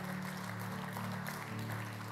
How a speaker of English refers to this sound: Man, I got even Baptists to clap on that one.